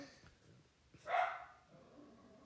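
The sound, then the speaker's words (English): A single sharp bark from a pet dog rings out midway through, against quiet, faint background noise with no talking. “Gus Gus is just. If you guys can hear that.”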